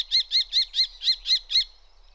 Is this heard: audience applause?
no